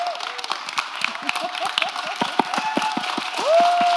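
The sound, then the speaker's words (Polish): An audience applauding author Karolina Sulej at a book event, with many dense, irregular claps and a sustained tonal whistle or feedback tone running beneath, swelling slightly louder toward the end. “Karolina Sulej, raz jeszcze wielkie brawa.”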